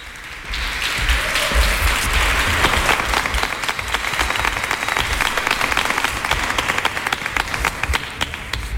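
An audience applauds steadily, a dense wash of many hands clapping that swells quickly and holds at an even, loud level throughout, with no talking over it.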